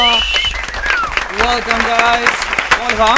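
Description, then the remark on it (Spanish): At Lapsus, an audience applauds steadily for a few seconds to welcome a live band, a dense, loud crackle of many hands clapping, with voices calling out and talking over it. “Fuerte el aplauso.”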